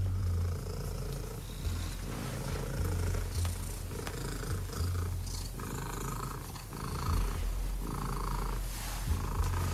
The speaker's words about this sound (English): I think we have the world record attempt here. Let's listen. This is an official attempt for the loudest purr by a domestic cat.